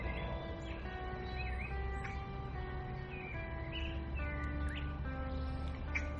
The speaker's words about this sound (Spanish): El día de hoy estoy aquí en un parque en el cual acostumbro a venir a hacer ejercicio frecuentemente. Te voy a dejar unos segundos para que escuches a los pájaros.